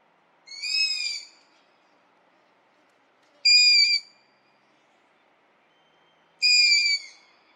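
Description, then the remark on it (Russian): A long-eared owl fledgling, a young bird that has left the nest and waits for its parents to bring food, gives its begging call: three high, squeaky, drawn-out cries, like a creaking hinge, spaced about three seconds apart, with quiet between them. “Вот так кричит слеток ушастой совы.”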